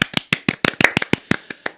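A short burst of hand clapping: about a dozen sharp, crisp claps in quick, slightly uneven succession, fairly loud and heard on their own with no talking.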